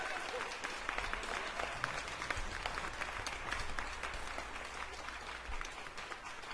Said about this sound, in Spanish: Bravo. Unos aplausos, por favor, para estas mujeres maduras.